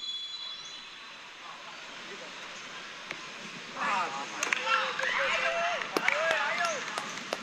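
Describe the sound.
A large football stadium crowd murmurs steadily, then swells into loud cheering and shouting about halfway through as a penalty goes in, with sharp bursts and individual voices rising above the roar.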